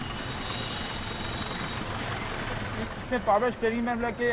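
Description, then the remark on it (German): An Ambassador car without power steering or air conditioning drives, its engine running with a steady, droning rumble and road noise from inside the vehicle; toward the end, a voice speaks over the engine sound. “Ambassador zu fahren kostet Kraft.”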